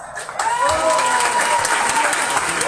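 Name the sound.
applause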